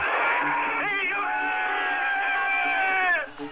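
A large crowd cheers loudly and continuously, with whoops and high shouts rising above a dense roar that holds steady for a few seconds before briefly dropping off.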